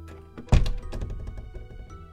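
The door of a grandmother's little house is pushed open with one heavy thunk, followed by a low resonant rumble that slowly fades. No voices are heard.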